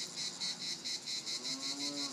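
A loud, steady chorus of cicadas in Provence buzzes in rapid regular pulses, about four per second, while a low, drawn-out lowing tone rises faintly underneath toward the end.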